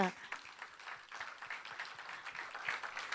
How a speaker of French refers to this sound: Merci beaucoup. On peut les applaudir.